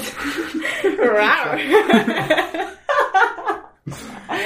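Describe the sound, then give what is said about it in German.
A person attempts a tiger roar with their voice, a short, feeble growl mixed with chuckling and snickering laughter, followed by a brief pause and more voice. “okay, was wir schon mal nicht spielen, sind Tierlaute erraten, weil ein rarer Tiger ist wirklich schwach, Alter.”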